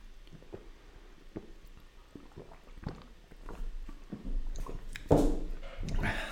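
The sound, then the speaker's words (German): Someone sips water, with a series of small wet gulps and clicks in a steady rhythm, followed by a louder, breathy rush of liquid near the end. “Jetzt haben wir aber da noch viel Wasser. Prost!”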